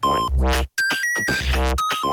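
A pocket synthesizer plays its first default drum pattern: loud, buzzy electronic hits with deep booming thumps and sweeping noise, layered with steady high synthetic tones in a repeating loop, with no voices.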